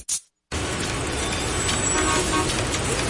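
Loud, dense traffic noise in a traffic jam, with car horns honking amid a steady roar of engines, after a brief burst and a moment of silence at the start.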